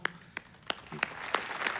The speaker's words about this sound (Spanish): Y el hermano Wayne Myers, que si nos estás viendo, hermano Wayne, te damos un, saludo y un aplauso.